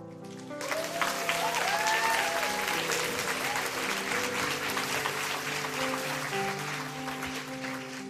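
An audience at a church baptism service stands and bursts into sustained applause for Jesus, a dense, steady clatter of many hands clapping, with cheers and whoops rising over it and sustained musical tones ringing underneath.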